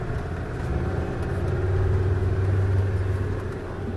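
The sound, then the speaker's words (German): A Land Rover engine starts and runs steadily as the vehicle drives on along the dunes, a loud, continuous low rumble with a droning hum that swells slightly midway, with no voices. “startet seinen Land Rover und wir machen uns weiter auf den Weg entlang der Dünen, bis man aus dem Staunen nicht mehr rauskommt.”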